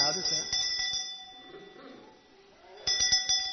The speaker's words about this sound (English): And it's what they ring. It's the sort of bell they ring every morning. It's not quite as loud, but it represents something that's happened more recently.